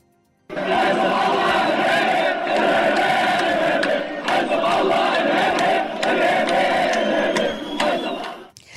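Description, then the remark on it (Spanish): A large protest crowd in central Beirut chants and shouts together in a dense, continuous roar, voices rising and falling in unison, demanding resignations, including of Nasrallah and the whole government, and calling Hezbollah a terrorist organization; loud for several seconds. “Así se escuchaban en parte los cánticos y exigencias de renuncias, dicen eh, Mm, Nasrallah, vete a casa, Hezbollah, organización terrorista.”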